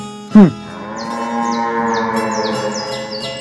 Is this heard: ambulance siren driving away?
no